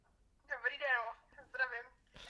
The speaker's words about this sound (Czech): Bacha, někdo volá. A další telefonát.